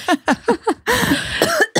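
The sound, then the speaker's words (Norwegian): A quick run of four sharp coughs in steady rhythm, followed by a longer, harsh, raspy hacking burst and one final cough, loud with no speech. “Du kan ikke skylde på pollen for at du hoster, du kan skylde på pollen for at du leker fra øya.”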